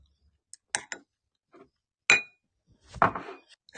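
Several bright clinks of drink containers, holding Aquarius sports drink and leftover water, knocking together in a toast, with one sharp ringing tap in the middle and a fuller clatter near the end, fairly quiet, with no talking.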